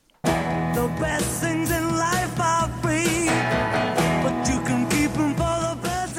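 An early-1960s rock song, a 1963 cover version, plays loud and full after a split-second of silence, with a sung vocal line over a driving band that keeps a steady, danceable beat throughout.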